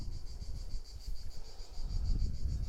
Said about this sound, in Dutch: dat ik krekels hoor, dat ik een warm zonnetje op me voel.